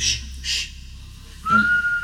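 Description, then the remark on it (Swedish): Two short breathy hisses, then a single steady, monotone recorder-like beeping tone holds at one pitch for about half a second, fairly clear, with no talking; the tone seems to come from the mountain itself. “jag tror att när, när ni bryter upp och ska fortsätta gå, då börjar de här pipljuden. Mm. det är som blockflöjtstoner, monotona,”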